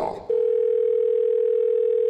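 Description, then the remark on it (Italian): A brief burst of mixed noise gives way to a steady, continuous telephone dial tone of an outgoing call to an electrician, a single clear pitch holding loud and unbroken for about two seconds. “Prima telefonata all'elettricista.”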